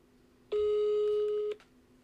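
A single steady telephone ringback tone on an outgoing call sounds for about one second, clear and fairly loud, then cuts off, leaving quiet background with no one talking.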